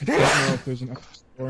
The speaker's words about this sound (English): Bless you.